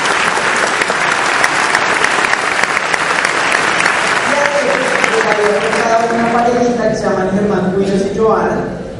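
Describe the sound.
A crowd bursts into loud, sustained applause for two Christian pastors in the audience, dense clapping filling the whole stretch, with a voice rising over it in the second half before the clapping begins to fade.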